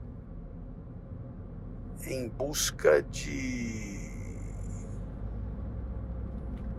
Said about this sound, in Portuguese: Ficamos por aqui hoje descendo a Serra de Campos numa fila interminável de carros